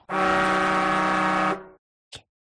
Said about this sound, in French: Euh, ben voilà, le, le klaxon qui, euh, indique la fin de l'émission, le temps de, vous saluer, de vous souhaiter euh, un, bon Grand Prix et surtout.